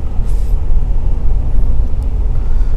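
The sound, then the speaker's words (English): A car engine roars steadily, a deep, continuous low rumble that fills the whole stretch without pause or change, with no voices over it. “All I can do is hold the mic closer to my mouth, and hopefully, it'll uh, you'll be able to turn it down to a point where you can't hear the the fluff in the background or the engine roaring.”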